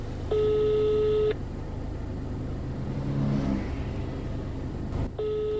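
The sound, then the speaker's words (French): A steady telephone tone sounds for about a second, stops, then starts again near the end, with the low rumble of a car engine running and revving underneath. “Avant tout, faut que j'appelle, me rassurer qu'il y a un truc, il ne faudrait pas que je parte comme ça pour rien.”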